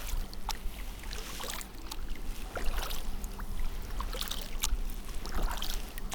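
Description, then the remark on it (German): Steady canoe paddle strokes dip into calm, boggy brown lake water, each followed by soft gurgling and fizzing as tiny air bubbles form on the lake surface, with a faint low hum underneath and no voices. “Das moorig-braune Wasser wippt leicht, versetzt das Boot in ruhiges Schaukeln und wenn ich das Paddel eintauche, schäumt und gurgelt es, produziert kleinste Luftblasen auf der Seeoberfläche.”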